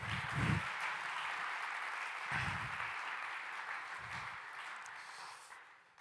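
A crowd claps steadily for about six seconds, a dense, close wash of applause that stays loud throughout, with a few low thumps underneath before it tapers off slightly at the end.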